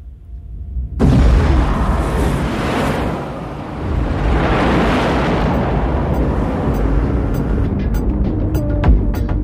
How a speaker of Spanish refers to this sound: se escucharon tremendas explosiones que se oyeron a más de 80 kilómetros de distancia y que generaron una impresionante onda de choque que llegó a detectarse incluso en el Reino Unido.